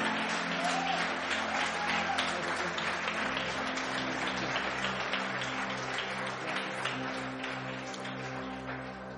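A crowd applauds steadily, many hands clapping in a dense, sustained wash that holds at a fairly even level for the whole stretch, with a low musical hum underneath and no talking.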